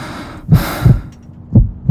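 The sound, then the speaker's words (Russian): A heartbeat: deep, muffled low thumps in a slow lub-dub rhythm, about two beats, with a soft airy whoosh swelling behind the first beat. No talking. “это стук твоего сердца наполняющий каждую клетку твоего тела.”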